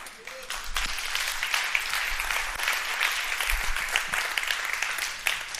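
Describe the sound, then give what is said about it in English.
A burst of enthusiastic audience clapping, a dense, steady patter of many hands sustained evenly throughout at a fairly loud level, with no one speaking. “Okay, you clapped a little bit too enthusiastically there, so I think you didn't actually understand what I was saying.”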